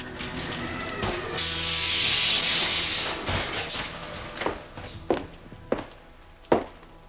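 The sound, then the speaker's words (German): A roller coaster car rolls back through a dark gate into the starting station with a loud, sustained pneumatic hiss of brakes, followed by a rumbling roll and three sharp mechanical clacks spaced out near the end. “Soeben kam einer der Wagen durch ein dunkles Tor zurück an den Startpunkt gerollt.”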